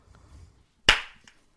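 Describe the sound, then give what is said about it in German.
One sharp, dry hand clap from a single person rings out, cutting through near silence and decaying quickly with a short, bright tail. “weil das klingt trocken, aber trotzdem lebendig.”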